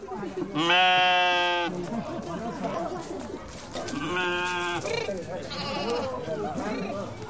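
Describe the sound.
Sheep bleat three times in close succession, loud and wavering, with the first call the longest, as they make their way through the narrow alleys between the houses of Shibam to their stable, over a steady bed of murmuring voices and street bustle.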